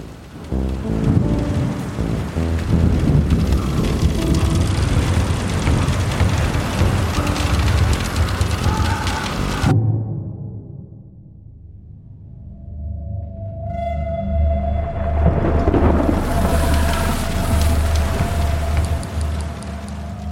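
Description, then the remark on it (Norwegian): A storm at sea: heavy rain pours in a dense, loud roar, then cuts off into a low rumbling lull with a faint ringing tone before the downpour and storm noise surge back. “Etter noen dager med finvær så blåser det opp til storm. Og den blir bare kraftigere og kraftigere.”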